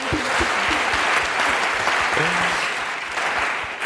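An audience claps steadily for a few seconds for a person who has just been introduced, a dense, even wash of applause at constant loudness, with a few faint voices murmuring underneath.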